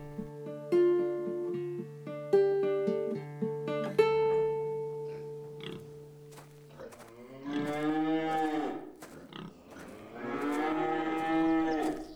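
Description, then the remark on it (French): Cows moo in two long, loud, wavering bellows in the second half, following several seconds of steady, sustained droning tones, with no one speaking. “On dirait qu'elle reconnaît l'odeur des vaches.”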